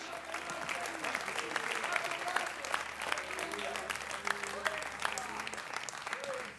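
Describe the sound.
An audience in church claps steadily together to thank God, a dense and continuous wash of many hands, with some voices calling out underneath the applause.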